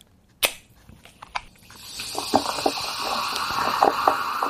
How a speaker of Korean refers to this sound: 예, 사이다나 콜라, 예, 탄산음료 따가지고 따르는 소리예요. 네. 자, 청량한 이 소리.